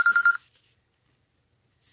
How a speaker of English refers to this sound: I have a ringer coming in on an incoming phone, and I don't want to knock it off because if I do, I think it's going to jerk up my whole my whole uh, transmission right here. Okay, that's that's getting persistent.